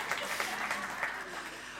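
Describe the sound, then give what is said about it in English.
A short burst of applause sound effect, a dense, steady crackle of many hands clapping at once, fairly soft and even in level for under two seconds. “Round of applause for the gecko feeling.”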